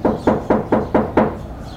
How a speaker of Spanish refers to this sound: Al día siguiente, apenas al alba, alguien tocó a la puerta de mi departamento.